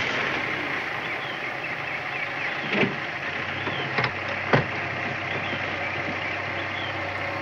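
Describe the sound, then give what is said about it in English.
A police squad car, after driving along a riverbank, rolls steadily along a rough dirt road looking for a cabin, its engine a low continuous rumble under gravelly road noise, with a few sharp bumps and rattles as it jolts over uneven ground. “We switched to the squad car, driving along a riverbank and then onto a dirt road as they're trying to find the Darlings' cabin.”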